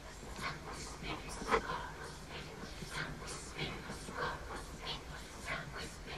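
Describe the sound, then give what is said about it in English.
A chorus of voices imitates a dog's panting, recorded as the breathing of a dog walking by: a steady run of soft, breathy huffs about twice a second, fairly quiet, with no words spoken. “And he actually insisted that they record some extra so that he could lay it in for the sound of the breathing of the dog when the dog walks by, which is a pretty cool effect.”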